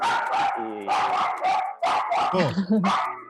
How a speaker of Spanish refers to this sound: Te olvidaste de apagar el perro. Bueno, apagar el perro, pelotudo.